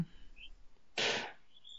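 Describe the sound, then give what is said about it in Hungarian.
Faint, high-pitched squeals from guinea pigs two doors away come in short bursts, with a brief louder rush of noise in the middle and no talking. “Bocsánat, hogy hallatszik, két ajtóval van, vannak a tengeri macok, akik üvöltnek.”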